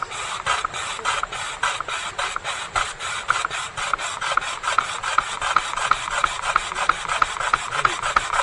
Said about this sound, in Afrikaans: so first of all put the dry bamboo skin over here down here and then you need to make one mark make one mark Okay? So make one mark like this, so it'll be easy for you to rub. Uh, the dry bamboo, just now. Yeah.